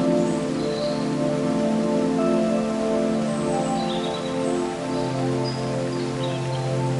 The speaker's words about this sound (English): As you walk deeper into the forest, you begin to hear the gentle sound of a waterfall in the distance. The air grows cooler, and the sound of the waterfall grows louder.